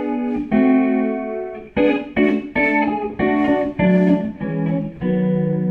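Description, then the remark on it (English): An electric guitar played through a chorus pedal strums a series of sustained chords with a shimmering chorus effect, about eight loud strokes ringing out with no talking. “Uh, the chorus is nice.”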